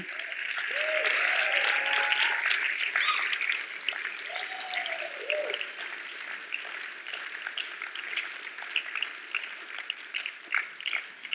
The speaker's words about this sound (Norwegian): Eh, og jeg har lyst til at dere skal klappe for dem før de begynner nå. En klapp for alle de